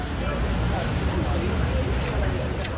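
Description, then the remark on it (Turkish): Steady outdoor street ambience with a dense murmur of crowd voices and low rumbling traffic passing, continuous and fairly loud, at a protest by Amnesty International members over the Israeli bombardment of Palestinians in Rafah, with news photographers and passing pedestrians. “Haberciler en iyi fotoğraf karelerini yakalama yarışındayken yaya trafiği akışında meraklı bakışlar dikkat çekiyor.”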